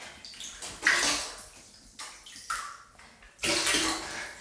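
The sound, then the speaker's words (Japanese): Bath water sloshes and splashes in a tub as a person gets into a warm bath tinted yellow with a Kusatsu hot-spring bath additive. It comes in several broad, noisy surges, fairly loud, with quieter lapping between the bursts and no talking. “昼間のお風呂は贅沢ですよね”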